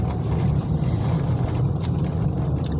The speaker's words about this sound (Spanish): Por si escuchan algún ruido que les suene extraño, pues sí, vengo manejando.